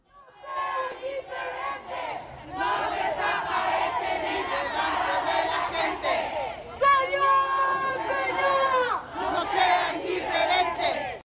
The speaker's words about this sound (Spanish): es que así se vivió la primera marcha del día encabezada por la Comisión de Búsqueda de Personas. Escuchemos.